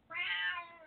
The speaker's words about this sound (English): Okay, now that's my cat.